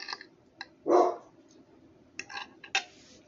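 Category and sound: animal, dog barking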